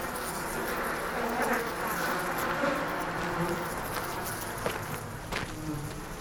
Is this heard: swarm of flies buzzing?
yes